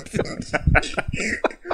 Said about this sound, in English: dog, gonna be coughing on here.